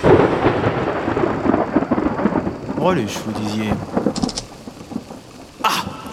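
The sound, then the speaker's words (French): A thunderstorm with deep rolling thunder over steady, hissing rain, fairly loud throughout, while a voice speaks briefly beneath the storm. “Ah, saloperie de réseau Par tant d'orage, on capte plus rien ici.”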